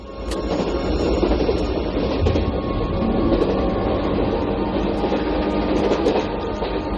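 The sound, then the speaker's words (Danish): Steady rumble of a moving train carriage in a film scene of Isabel Eberhardt's train journey, a continuous low roar with faint rattling and occasional metallic clicks, heard from inside the car with no voices. “Øh, scenen, vi skal høre nu, er fra en, øh, en, øh, en togtur, hun har, hvor hun møder en journalist, og hvor hun sammen med den her journalist filosoferer over, hvad hun netop vil med sit liv.”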